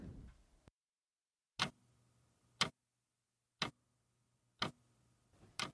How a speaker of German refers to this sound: Das beruhigende, monotone Ticken ihrer alten Wanduhr mischte sich mit den gedämpften Geräuschen außerhalb ihrer kleinen Wohnung.